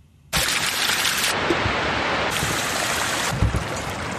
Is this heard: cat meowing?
no